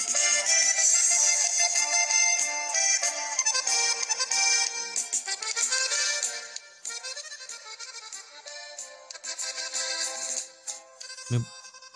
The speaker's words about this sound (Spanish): Claro que sí, es. es eh, tiempo de Vals, pero versión norteña. Aquí la bailamos así.